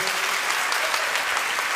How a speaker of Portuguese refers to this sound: Ou oh, atrai Deus aí com tuas palmas, atrai com a tua adoração.